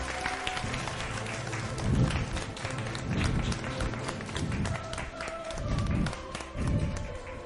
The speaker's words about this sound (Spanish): Y recibámoslo con un fuerte aplauso, por favor.